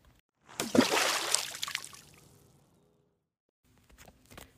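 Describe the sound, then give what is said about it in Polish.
A sudden splash of water spilling out in one loud gush that quickly fades to trickling, followed by a short quiet gap and a few faint clinks and patters near the end. “I wtedy mucha wodę wylała.”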